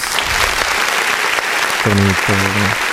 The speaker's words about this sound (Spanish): Aplausos, chavos.